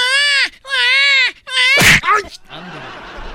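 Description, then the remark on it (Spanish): A crying sound effect standing for Chivas fans crying: three loud, drawn-out wailing cries in quick succession, each a rising and falling sob, ending in a harsh breathy burst and then a fading hiss. “Los de la China se están llorando. No, no, eso no es llorar.”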